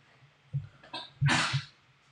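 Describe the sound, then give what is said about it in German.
A dog coughs and wheezes in a few short, raspy bursts, building to one loud, breathy hack before trailing off, with no talking. “der Hund stirbt schon wieder”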